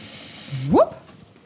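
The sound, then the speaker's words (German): Lukewarm tap water pours with a steady hiss into a large pot for pasta water, filling it about half full. Its pitch rises quickly as the pot fills, then the flow cuts off to a quieter background. “Also wir nehmen einen großen Topf, füllen den mit warmem, lauwarmem Wasser an.”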